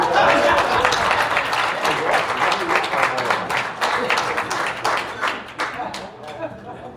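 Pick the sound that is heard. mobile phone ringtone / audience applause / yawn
audience applause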